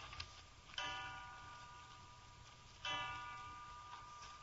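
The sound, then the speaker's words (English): A clock ticks softly in the quiet as it strikes three o'clock, slow, resonant chime strikes ringing out and lingering, each tone decaying gradually before the next. “Three o'clock.”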